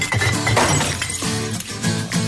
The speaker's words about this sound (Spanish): Reciclar las botellas de vidrio.